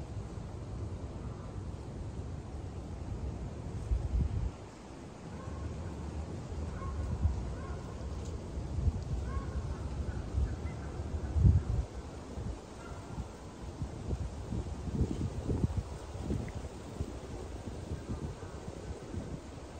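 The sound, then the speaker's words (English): Wind blows steadily through trees on a sunny day, leaves rustling in a continuous wash of noise with low rumbling gusts swelling now and then, heard outdoors with no one speaking. “Maybe notice the wind blowing through the trees, the sun trickling.”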